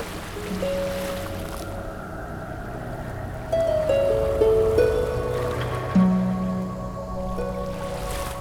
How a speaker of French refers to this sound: Les vagues frappaient violemment le rivage. Le vent soufflait, la pluie était battante tel était le climat des côtes occidentales.